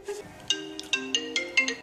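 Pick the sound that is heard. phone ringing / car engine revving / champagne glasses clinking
phone ringing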